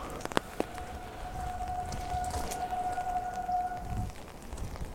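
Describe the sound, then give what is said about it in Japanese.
A hybrid car rolls quietly past on a road, its faint steady electric whine and soft tire hiss swelling and fading over a few seconds, with light rain patter and outdoor ambience around it. “の横を通りますけども、うん、ハイブリッドだから静かだったね”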